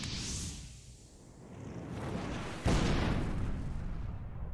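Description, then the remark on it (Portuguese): A low, rumbling wash of noise builds for a few seconds, then a single loud explosion outside a house bursts in abruptly and leaves a heavy, sustained roar. No one speaks. “uma, é uma explosão. Vindo do lado de fora da, da, da casa.”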